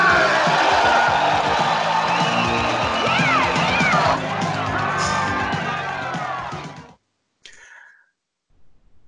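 A woman yells "yeah" over a loud, dense cheering crowd with scattered whoops; the roar runs for about seven seconds, cuts off abruptly, and a brief faint burst follows.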